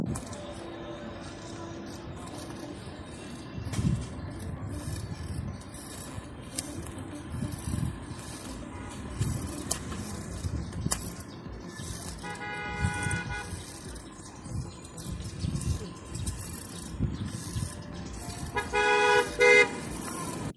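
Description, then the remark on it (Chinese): Street ambience on Youdian Back Street in Taiyuan, China: a steady rumble of traffic with cars passing, people talking faintly in the background and someone pedaling a bicycle, broken by a short horn toot midway, then a louder, buzzy car horn honk right at the end. “包括整个的就这个街道上的一些人的说话也好，还有包括像呃汽车来回过的这个声音，以及自己蹬自行车的这个声音啊，这个环境音终止于就是一辆车的鸣笛声，嗯，可以听一下这个的原始采样。”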